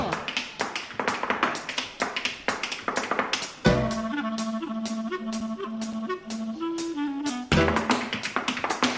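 Zapateado footwork: rapid, sharp heel-and-toe strikes in quick, uneven bursts. Midway, a sustained melodic tone joins for a few seconds while the stamping continues, then the percussive taps carry on alone.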